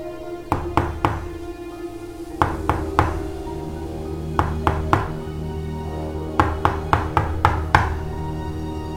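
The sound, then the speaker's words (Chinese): A friend knocks on the door of someone's home in repeated bursts of three or four sharp raps, pausing between each set, with the knocks growing slightly more insistent over time; no one answers or speaks. “敲门敲好久，你不在家吗？”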